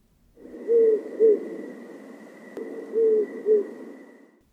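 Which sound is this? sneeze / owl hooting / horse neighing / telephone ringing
owl hooting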